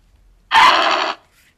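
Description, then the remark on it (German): The normal cry of the video game creature Lucario played back once at raised volume: a loud, harsh electronic screech of about half a second with a faint tonal whine in it, then cutting off. “Ähm also, das ist der Ruf von Lucario normal.”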